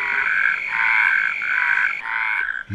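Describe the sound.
A person imitates a yellow-legged frog call with about four throaty, buzzing croaks in a steady quick rhythm, fairly loud, with no words spoken.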